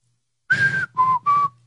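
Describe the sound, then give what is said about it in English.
A person whistles an imitation of a mockingbird call: three clear notes, a longer higher one followed by two shorter, lower ones, with no talking. “That's a mockingbird call.”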